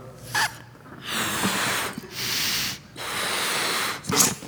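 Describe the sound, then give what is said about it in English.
Someone blows up a balloon by mouth: three long, steady, breathy puffs with brief pauses between them, plus quick sharp inhales at the start and end. Fairly loud, with no talking. “Now, if you wanted to keep this balloon floating in the air, you might take it and I'm going to blow it up.”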